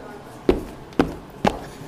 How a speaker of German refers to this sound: Ich laufe jetzt mal hier ganz kurz und halte mir das Mikrofon an meine Füße.